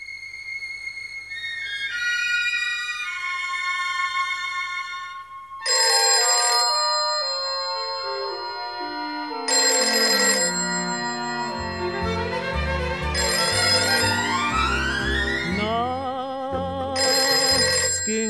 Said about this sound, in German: das Telefon und ich wusste schon, das kannst nur du sein.